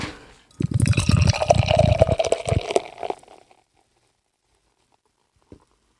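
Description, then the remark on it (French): A drink pours from a can in a steady gush of bubbling liquid for a few seconds, then cuts off, leaving a faint foamy fizz and one small knock near the end. “C'est une canette, vous allez, vous allez l'entendre.”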